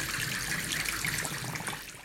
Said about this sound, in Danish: Hvad er det, du øh, er ved at tænde for her? Jeg er lige ved at tænde vand til boblebadet. I har simpelthen altså et boblebad med udsigt over Lillebælt?